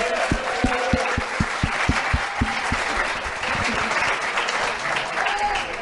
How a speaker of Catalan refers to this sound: l'Oleguer és economista, el podeu aplaudir eh, també. Sí.